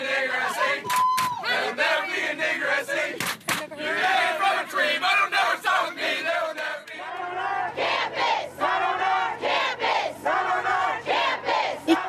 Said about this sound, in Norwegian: Ned på vårt campus, roper flere hundre studenter som demonstrerer mot rasismen ved universitetet i Oklahoma, bare noen timer etter at videoen er blitt spredt på sosiale medier.